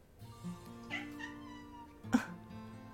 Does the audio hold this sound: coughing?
no